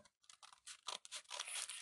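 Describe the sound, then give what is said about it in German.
Crisp cutting and crinkling of a paper bag with scissors, a run of short rustling snips that blend into a steady scratchy tear near the end, with no voices. “Und äh, ganz wichtig ist, nicht in der, einfach die Mitte durchschneiden, weil dann habt ihr ein Problem, dann geht das Ganze nicht mit dem Stern so, wie es sein soll.”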